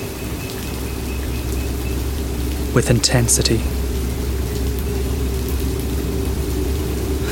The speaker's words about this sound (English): It's night. The only light that guides our hands our shitty phone screens. We can't see the rain, but we feel it, like we feel each other